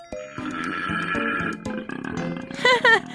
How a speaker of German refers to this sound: Nee, so tief klingen männliche Koalas in Australien, wenn sie Weibchen beeindrucken wollen. Beim Einatmen klingt's wie ein Esel, beim Ausatmen wie Rülpsen nach zu viel Sprudelwasser.